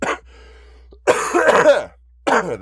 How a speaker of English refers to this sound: Still have a cough hanging on, too, by the way.